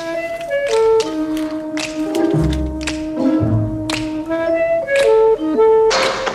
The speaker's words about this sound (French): Et si ce nom vous dit vaguement quelque chose, imaginez cette caméra qui s'approche lentement de New York et de ses rues. Vous ajoutez ces claquements de doigts, un terrain de basket grillagé à Manhattan où s'affrontent